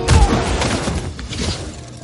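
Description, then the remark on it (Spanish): Rapid gunfire crackles through a dense, noisy action scene as soldiers shoot at a levitating young woman who lands and shields herself with an electric shield, opening with a heavy low thud as someone is knocked to the ground, followed by scattered impacts and bursts. “La joven llega levitando, se posa en el suelo y se protege de los disparos con un escudo eléctrico.”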